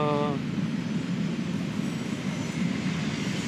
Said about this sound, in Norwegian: Ja, toget er på skinner. Ja, er det eh, vi som kjører forbi her? Eller er Grønland Rail, faktisk. Et, ja, eller et lokalt eh, godstog, tenker jeg, ja. som uh, leverer uh, Leverer uh, en, et eller annet til Brevik.